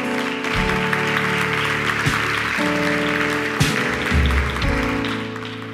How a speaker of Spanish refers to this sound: Si lo cree, dele un aplauso a Él.